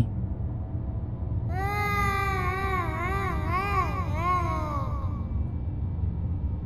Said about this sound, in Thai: เสียงทั้งหมดเงียบไปทันที ก่อนที่จะเปลี่ยนมาเป็นเสียงสะอื้นร้องไห้